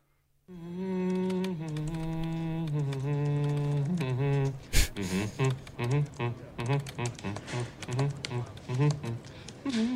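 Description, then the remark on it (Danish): A person hums a tune, holding long steady notes at first, then shifting to a bouncier, choppier melody after a brief sharp click partway through. “Stop humming that song. I can hum if I want to.”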